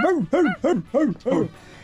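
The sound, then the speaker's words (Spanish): A voice imitates a dog barking outside a house with five quick, evenly spaced woofs that rise and fall in pitch. They are fairly loud, with short gaps between them. “Está un perro ladrando afuera de la casa.”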